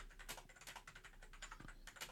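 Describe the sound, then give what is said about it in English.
Rapid, irregular clicking of a computer keyboard being typed on, a steady stream of light taps with no voices. “Oh gosh, the the keyboard is clicking away.”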